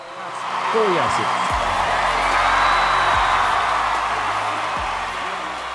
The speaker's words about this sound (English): ovation ensues. The crowd can't get enough.